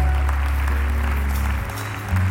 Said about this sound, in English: Oh, I wish you would keep clapping.